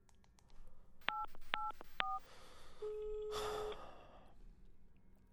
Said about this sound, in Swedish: Nej, jag ringer mamma igen tror jag. Vänta ska vi se här.